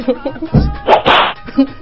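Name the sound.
slap on the face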